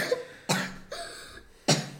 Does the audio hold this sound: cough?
yes